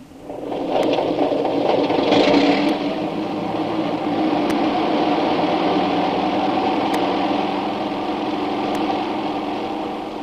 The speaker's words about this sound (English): Was that the plane, boss?